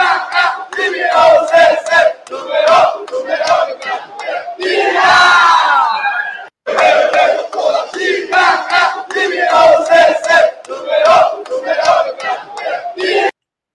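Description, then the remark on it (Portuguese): A loud crowd of São Paulo football fans shouting in protest, with rhythmic chanted bursts that rise and fall, a brief swell of louder yelling near the middle, and a short break before the chanting resumes. “Ah, tem, tem imagens de protesto da torcida do São Paulo colocando na tela aí para vocês.”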